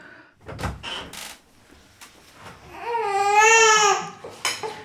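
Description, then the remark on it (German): A hungry baby cries, with short fussy whimpers building into one long wavering wail, followed by a few more brief sobbing sounds, alongside faint knocks and rustles. “Hast du noch mehr Hunger? werde es mal probieren. Ja, das klingt nach Hunger.”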